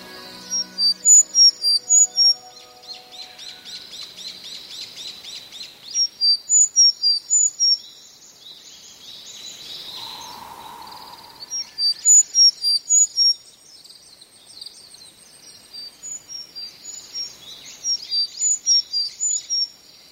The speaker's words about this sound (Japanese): ひつきひつきという甲高い声エゾムシクイです4月頃日本へ渡ってきて比較的標高の高い山林で繁殖する夏鳥ですエゾムシクイの体長はおよそ11センチスズメくらいの大きさです